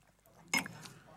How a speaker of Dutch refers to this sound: Dan neem ik eerst een slokje Ja, neem eerst maar een slokje.